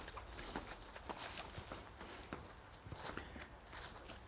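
Footsteps walk at a steady pace, about two crisp steps per second, passing through a small garden gate, over a constant outdoor hiss with no one speaking, on a windless day.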